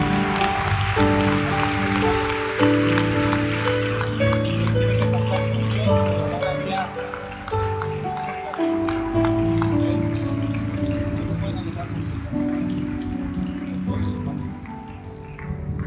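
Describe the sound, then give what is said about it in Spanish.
A church audience applauds for God after a prayer, steadily for about fifteen seconds, a dense, crackling wash of many hands clapping, with sustained low musical tones and murmuring voices underneath. “Denle un aplauso a Él.”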